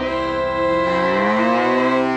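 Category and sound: animal, cow mooing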